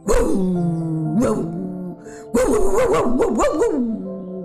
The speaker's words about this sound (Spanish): Al poco tiempo llegaron tres perros de los cazadores y saltando a su alrededor agitadamente empezaron a ladrar muy ferozmente